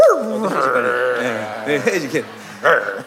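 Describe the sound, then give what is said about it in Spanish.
A person mimics German shepherd dogs barking with their voice, producing whiny, yelping bark-like sounds in a few short bursts and a sustained howling tone, fairly loud. “Pero si usted se transforma en pastores alemanes, no es que rugen como leones, están ladrando. Eh, hacen ruido de perros.”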